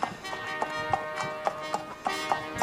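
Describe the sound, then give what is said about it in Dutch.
Horse hooves clip-clop at a steady walking pace, sharp regular knocks on a hard surface, with no talking over them: Karel riding his horse with the Burgundian delegation on the way to Trier, in the rain. “Onze Karel op zijn paard.”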